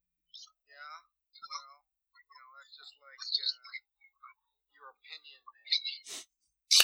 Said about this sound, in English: Um, yeah, just shoot me any text whatsoever. Just hi, whatever. Uh, this is my text notification.